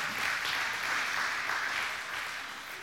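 Steady applause from an audience for a woman invited up to share her testimony, a dense crackle of many hands clapping at once, sustained and fairly loud throughout before easing slightly at the end.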